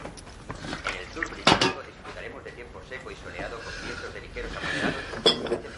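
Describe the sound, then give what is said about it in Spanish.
An old man handles a kettle and teapot as he prepares tea in a house near a cemetery, with two sharp ceramic-and-metal clinks standing out against a low, continuous background of soft kitchen rustling. “Mientras prepara la tetera, mira la mansión a través de una ventana.”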